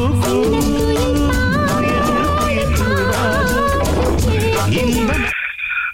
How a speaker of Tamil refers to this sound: பாட்டு வருது கேளுங்க தெளிவா பதில சொல்லுங்க